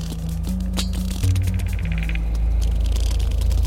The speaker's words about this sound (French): Au sein d'un même pod, les cachalots se reconnaissent et communiquent en émettant des clics particuliers qui se répètent selon un rythme régulier et un intervalle précis. Une espèce de chant de ralliement qui sert de carte d'identité au groupe.